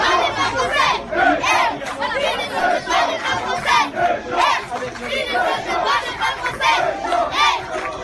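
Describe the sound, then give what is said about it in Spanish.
A large crowd of children, Russian children among them, shouts and chants in rhythmic bursts in support of the French team at the France fans' house (Casa de los Blues) while France is on the pitch, loud and continuous, with overlapping yells throughout. “Escucha a los niños cómo los apoyan mientras que el equipo de Francia está en la cancha.”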